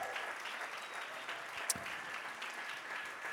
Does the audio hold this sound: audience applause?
yes